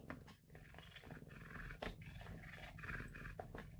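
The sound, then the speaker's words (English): A small dog growls steadily and roughly, with a few sharp snarly bursts and scuffling noises as it attacks a notebook, no talking. “do you hear that? He's attacking the notebook.”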